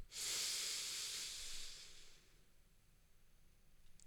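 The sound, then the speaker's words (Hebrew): A single slow, airy inhale through the nostrils, steady for about two seconds, then near silence, as part of a box breathing exercise. “Box Breathing זה נשימות באינטרוולים של חמש שניות, שמה שזה אומר, זה אומר שאיפה דרך הנחיריים במשך חמש שניות”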